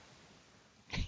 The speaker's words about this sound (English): You just sneezed.